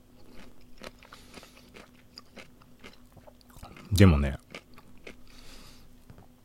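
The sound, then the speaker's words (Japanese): Chewing with scattered small crunchy clicks, then one loud, sharp crunching bite near the end, as a person eats and drinks while talking. The person speaks briefly and quietly over the eating. “咀嚼音注意”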